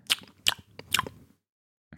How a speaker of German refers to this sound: Ich warte nur, bis du ausgetrunken hast und geschmatzt hast dann.